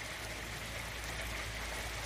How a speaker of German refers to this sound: Ja, es beginnt mit Regen. Ja, aber eigentlich voll angenehm.